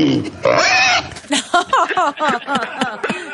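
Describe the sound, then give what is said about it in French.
A pig grunts and oinks in a rapid run of short, squealy calls, fairly loud, with a brief higher squeal near the start. “C'est que Le cochon apprécie pas”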